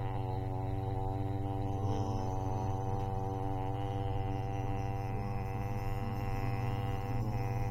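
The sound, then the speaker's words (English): A steady, low humming drone with rich layered overtones, holding constant for the whole stretch without pauses or variation, like a machine or engine running continuously. “It's a hum, like the engine on the Enterprise.”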